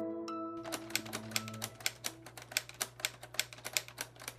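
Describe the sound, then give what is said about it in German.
Rapid, uneven keystrokes on a typewriter built from Lego bricks clatter, a dense run of sharp clicks over a steady low hum, with a brief tonal chime at the start. “Ja, ich finde, wenige Geräusche können einen so schnell so nostalgisch machen wie Schreibmaschinen tippen.”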